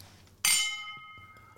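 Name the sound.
glasses clinking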